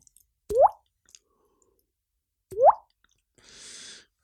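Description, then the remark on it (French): Two crisp, resonant plops about two seconds apart, made by popping a cheek to mimic a falling water drop, clear, followed by a short breathy hiss. “Je sais pas si vous entendez, j'arrive à faire le bruit de la goutte avec ma joue.”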